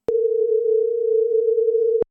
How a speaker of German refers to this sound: Ich teste mal die bis hierhin entdeckten Mittel des Krach. an unserem Sinusversuchsaufbau. Wir hatten ja schon den Sinus mit unharmonisch bewegtem Oberton.